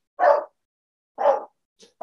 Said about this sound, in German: Der Hund will mitreden. Ja, leider.